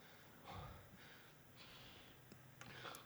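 Heavy, rapid breathing, a series of loud panting breaths with sharp huffs and snorting exhales, from a man standing on a treadmill whose belt has just stopped after he was running on it. No talking.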